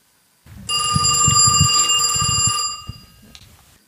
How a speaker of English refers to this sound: When we're interrupted by the phone, I hear him speaking with a friend of his, and he's speaking in Slovenian.